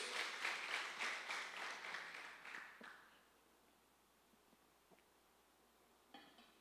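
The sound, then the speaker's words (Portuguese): An audience claps in a dense burst of applause for about three seconds, then it fades to quiet with a few scattered clinks and a brief rustle near the end. “Dá um aplauso a ele então, vai.”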